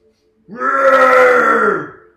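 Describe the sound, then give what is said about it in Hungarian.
A person imitates an orc's roar during a tabletop role-playing game, with a single loud, guttural growl that swells quickly and holds for about a second and a half before trailing off, with no other sounds. “ordít föl, mire a többiek megállnak.”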